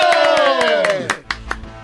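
A long shouted cheer slides downward in pitch over a lively crowd, with quick, scattered hand claps snapping through and a few louder claps trailing after the shout fades, as the audience applauds the introduction of the future first lady.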